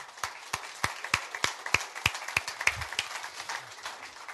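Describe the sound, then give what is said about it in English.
A round of applause from a small audience thanking panelists for sharing, with sharp individual claps standing out in an uneven rhythm over a softer wash of clapping, fairly quiet overall. “Well, can you guys help me thank our panelists for sharing this morning?”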